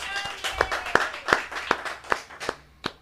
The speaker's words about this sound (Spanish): Eso, hay aplausos de la gente.